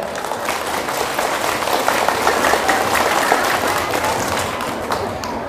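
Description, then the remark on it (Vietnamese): An audience of children breaks into sustained applause as a pledge to give up bad habits, dense overlapping claps forming a steady, loud wash of sound that holds evenly for several seconds without a break. “nếu các cháu thấy rằng là việc làm đó là rất cần thiết và mình có thể làm được dễ giống như ăn cơm hãy dành một tràng vỗ tay thật lớn để cam kết”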